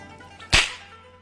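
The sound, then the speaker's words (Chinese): A single sharp whip crack strikes the ground, a bright, snapping burst that cuts through quiet and fades quickly with a short ringing tail. No voices are present. “见他不吱声，柳灵玉又将鞭子甩在地上，弄出“啪”的一声脆响”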